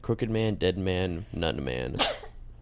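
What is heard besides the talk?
sneeze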